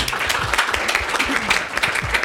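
An audience applauds the set and costume designer of a play, many hands clapping in a dense, continuous, steady patter that fills the space at moderate loudness, with no voices standing out.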